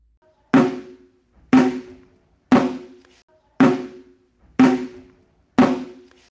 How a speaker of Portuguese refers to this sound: Isso! O gato andando no telhado.